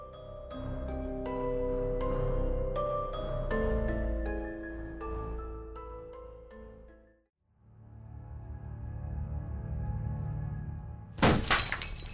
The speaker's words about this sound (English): This is lethal as glass rains down on you.